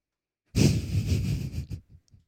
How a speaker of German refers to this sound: Nein. Ich habe dich schnaufen gehört.